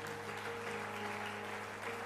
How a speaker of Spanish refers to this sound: Dele fuerte palmas a Dios por eso.